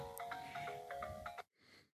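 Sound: phone ringtone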